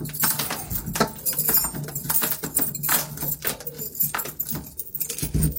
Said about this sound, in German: muss ich nur noch den richtigen Schlüssel finden. Ich habe jetzt so viel Schlüssel dran. Okay, davon verschwinden ja wieder vier Stück, wenn wir die Wohnung übergeben haben.